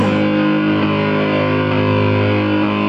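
A loud, dense stretch of a song released in 2014 plays continuously, with thick sustained chords and a heavily distorted, effects-laden texture filling the sound, steady in volume with no talking over it.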